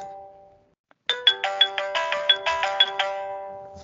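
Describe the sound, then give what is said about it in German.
A phone ringtone plays a quick, bright melodic pattern of repeated electronic tones, loud, after a faint tone that fades into a moment of silence. Nobody speaks. “Äh, das ist, wenn man so eine komische Telefonie hat.”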